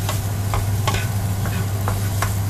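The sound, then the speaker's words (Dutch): Food being stir-fried in a wok, with a steady sizzling hiss and several sharp scraping clatters of a utensil tossing the ingredients, over a low steady hum. “En dan eh, even wok, wok”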